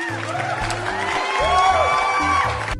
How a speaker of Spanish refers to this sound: Llega al alma eso. Aplausos.